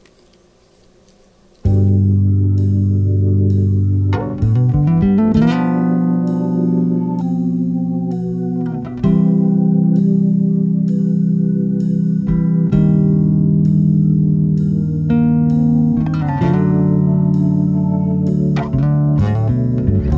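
A song plays, opening after a brief quiet moment with loud, sustained instrumental chords that shift every few seconds over a steady low bass, with no voices.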